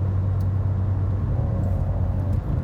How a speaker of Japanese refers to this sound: あのマニュアル車なんですよなのでこうアクセルとギアチェンジの音がノイズとして入るのかなとアクセルの音はね入んないですけどこうエキゾーストのアクセルを踏んだ時のエキゾーストの音とあとはガチャガチャっていう